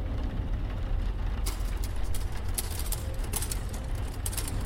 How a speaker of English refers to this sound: Is that a typewriter you hear? How strange. Must be some leftover relic. At least something is getting some use out of it, right?